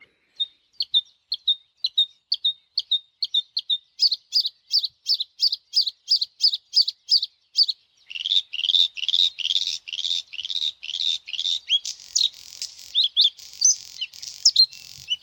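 A bluethroat singing alone, opening with a steady run of thin, evenly spaced chirps that build into faster, richer and more varied phrases, clear.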